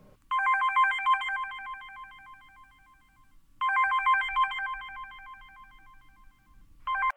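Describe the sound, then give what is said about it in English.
A mobile phone rings with a bright, warbling electronic ringtone, playing in long bursts that repeat about every three seconds, loud, with a third ring just starting as the sound cuts off. “The only thing we found was this mobile phone.”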